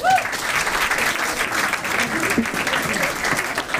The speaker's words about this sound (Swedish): Och en extra applåd